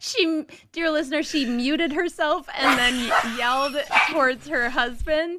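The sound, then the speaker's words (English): The woman's own dogs bark excitedly in the background, a burst of loud yaps rising over her as she keeps talking throughout. “My husband's about to come in, um, and I don't want the dogs to go too nuts.”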